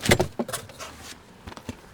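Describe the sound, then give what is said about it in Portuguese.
A woman's car trunk pops open in a parking lot in Boston early in the morning, with a sharp latch clunk and rattle, followed by a soft rushing swish of the lid rising, then two light knocks. No voices. “É cedinho de manhã, mulheres param seus carros em estacionamentos pela cidade e abrem um porta-malas.”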